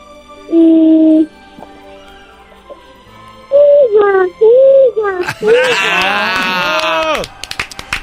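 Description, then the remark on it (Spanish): A young girl from the State of Mexico, Mexico, imitates a horse: a couple of short hooting calls, then a longer, shrill, wavering whinny that trails off. Fairly loud, with no other talking. “¿Puedes hacer el ruido de un caballo?”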